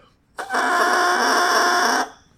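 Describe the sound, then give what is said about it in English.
A bassoon double reed blown by itself, its two pieces of cane vibrating against each other, gives one loud, buzzy, squawking tone that holds steady for about a second and a half, then cuts off abruptly, with no other sounds around it. “With a double reed instrument like the bassoon or the oboe, there there they're two pieces of cane vibrating against each other, and by themselves, the reeds just sound something like this.”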